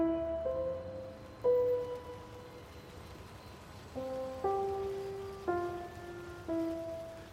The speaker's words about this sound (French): marche sous la pluie, jusqu'à ce que j'arrive, dit-il, à un bon café que je connaissais sur la place Saint-Michel.